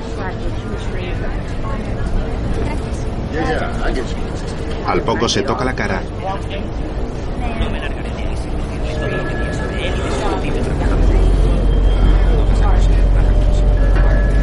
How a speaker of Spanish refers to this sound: En otro momento mira por la ventana de un autobús.